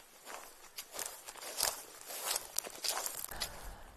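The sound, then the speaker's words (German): Footsteps crunch along an outdoor path toward a pond in the source area of the Berkel river in Billerbeck, a steady series of moderately loud steps over about four seconds, with no one speaking. “Jetzt sind wir mal ein bisschen näher an den Teich gegangen.”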